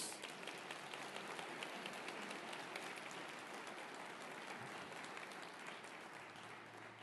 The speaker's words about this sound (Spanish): Dense un aplauso.